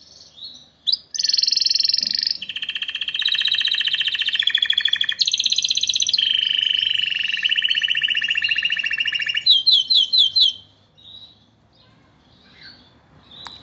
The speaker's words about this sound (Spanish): Sigamos disfrutando del trinar de estos pajaritos.